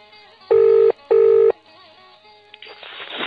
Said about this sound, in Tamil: அந்த வகையில் நாம் ஆயுஷ் ஹெல்ப்லைன் எண்ணுக்கு அழைத்தமையை விளக்கும் சிறப்பு ஒலிப்பதிவு இப்பொழுது நாம் ஹெல்ப்லைன் எண்ணை அழைக்கிறோம்